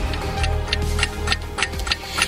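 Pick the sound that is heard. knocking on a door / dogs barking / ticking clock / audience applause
ticking clock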